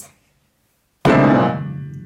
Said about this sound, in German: So richtig fest in die Tasten von ihrem Klavier hauen.